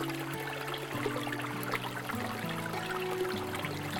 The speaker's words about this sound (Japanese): 水が綺麗だから流れる音も他の川に比べて綺麗な気がするんですよ、うん、癒される